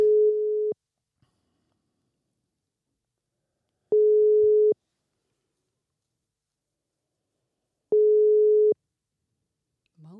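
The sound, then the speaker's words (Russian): A telephone ringback tone sounds three times while a number is dialed, each a steady mid-pitched beep under a second long, repeating about every four seconds with silence between, clear as if through a handset. “Набираем номер.”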